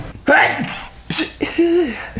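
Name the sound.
sneeze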